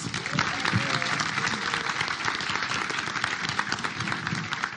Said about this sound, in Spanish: Un aplauso